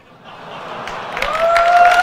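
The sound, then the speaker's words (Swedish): The audience at an iPhone presentation erupts in cheering and applause, building from a low murmur to a loud, sustained roar with whoops and sharp claps scattered through it. “Kan vi få ljudet av publiken från iPhone-presentationen?”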